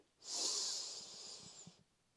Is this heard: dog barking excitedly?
no